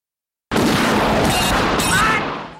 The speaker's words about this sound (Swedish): Och i en tunnel får Bond in ett skott.